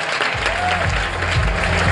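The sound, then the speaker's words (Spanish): A crowd applauds with dense, steady clapping that fills the whole moment, loud and continuous without a break, with a faint murmur of voices mixed into the sound. “Fuente aplauso.”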